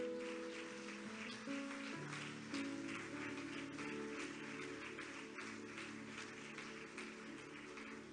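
An audience claps steadily for the whole stretch, giving an applause to the Lamb of God, a dense crackling wash of applause over sustained low keyboard chords, with no one speaking.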